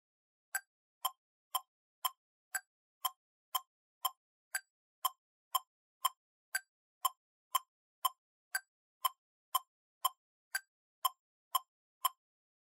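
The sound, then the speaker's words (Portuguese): A steady metronome ticks alone at a brisk 120 beats per minute, about two dry clicks per second, with every fourth click sounding slightly different to mark the downbeat. “Você reparou que na hora dessa batidinha, que a primeira delas tem um som diferente?”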